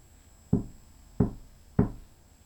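Three solid knocks on wood, evenly spaced about half a second apart, each a sharp thud with a short ring, close by in an otherwise quiet room.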